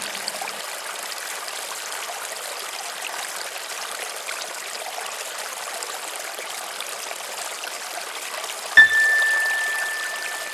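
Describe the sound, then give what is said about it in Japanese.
A steady, continuous rush of a flowing river fills the whole stretch, even and unbroken, with a single bright chime, rung at regular intervals as an attention cue in a breathing meditation, striking near the end and ringing out over the water. “そのまま川の音と自分の呼吸に意識を集中しましょうもし何か考えが浮かんできたり意識が逸れていることに気がついたらもう一度流れる川の音と呼吸に意識を向け直しましょう”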